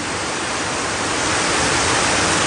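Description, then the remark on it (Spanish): Steady, dense rain falling, a continuous even hiss that holds at a fairly loud level throughout, with no voices and no distinct drops or breaks. “Y ahora están aguantando lluvia, miren, por puro capricho, no se van.”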